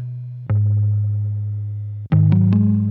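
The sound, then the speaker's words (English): An effects-laden electric guitar plays a short riff from a song demo: a long sustained low note, then a quick run of several plucked notes near the end, loud with no voices. “Anyway, um, same guitar used to demo this out, and I got as far as like this line”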